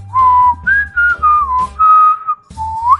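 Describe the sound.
Someone whistles the tune of "Take Me Out to the Ball Game" in clear, sustained notes with short breaks between phrases, over a soft, steady low rhythmic backing, fairly loud, with no talking.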